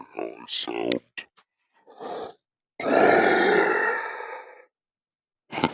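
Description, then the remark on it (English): A person growls and grunts in a deep, rough monster-like voice, starting with short bursts, then one long sustained gravelly groan, and ending with a brief final grunt, all fairly loud. “I'm in the monster voice and I wanted to hear what it sounded like.”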